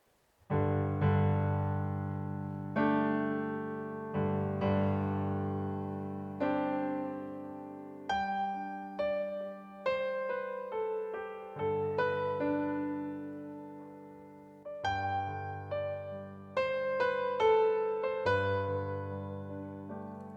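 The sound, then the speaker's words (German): A shortened modern arrangement of a worship song plays, with sustained, bright keyboard chords changing every couple of seconds at a steady, moderate loudness. There is no talking over it. “Wir hören mal eine gekürzte Version, eine moderne Version von …, ähm, dass ihr ein Gefühl für diesen Song bekommt”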